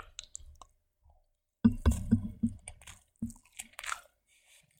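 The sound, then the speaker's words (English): Chewing of a bite of spam and rice, with wet squishy mouth sounds and soft crunches after a brief quiet start, then intermittent smacking and clicks. “I'm going to take another bite so our ASMR fans can get ready for this. You can hear maybe a little bit of the texture of the spam, the, the rice, all that stuff, and uh, maybe me biting the fork.”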